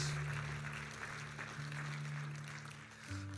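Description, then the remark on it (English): An audience claps steadily together as an offering of praise, a dense wash of applause over sustained low organ chords that shift near the end, with no one speaking. “Somebody give a clap offering of praise.”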